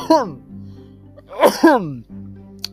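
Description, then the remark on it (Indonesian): Loud coughing: one harsh voiced cough at the start, then a quick double cough a second later, with a low steady hum underneath and a brief click at the end. “Batuk dulu ya.”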